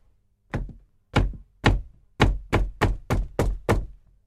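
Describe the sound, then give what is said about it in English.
Eight solid knocks on the door of a room in Glamis Castle, Scotland, fairly loud: three slow, evenly spaced raps followed by a quicker run of five. There is no voice or other sound. “They hear knocks at the door.”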